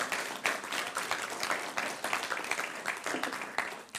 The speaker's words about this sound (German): Applaus an die Band. Come on.